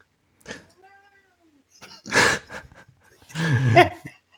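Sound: cat meowing loudly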